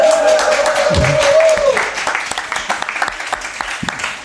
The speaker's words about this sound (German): Hier steht was von Applaus. Applaus